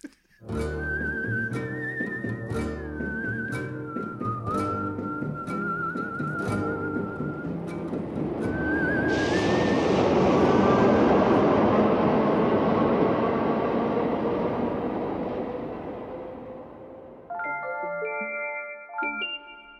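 A Paris metro train ride across the city to Montmartre: a high whistling tune over a low rumble, then the train's roar swells loudly midway before easing off, with bright chiming tones near the end. No one speaks.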